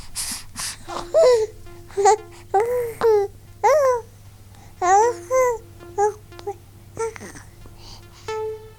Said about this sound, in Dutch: Ik heb namelijk een baby gekregen. En die baby die maakt de hele dag dit soort geluiden.